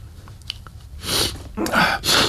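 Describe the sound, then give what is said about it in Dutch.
Someone blows their nose in three loud, breathy, hissing bursts, the last two close together, after a brief stretch of faint low rumble and small clicks. No talking. “Even, even, mijn neus snuit eventjes.”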